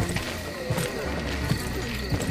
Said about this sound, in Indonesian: Tak lama kemudian, ia mendengar riuh langkah kaki yang berat memasuki rumah tersebut.